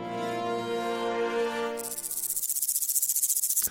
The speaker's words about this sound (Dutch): Ja, dit is een beetje raad het geluid, eh, een hele raad het geluidspelletje. Wat denken jullie? Een ratelslang. Een ratelslang. Nee, het is een sprinkhaan.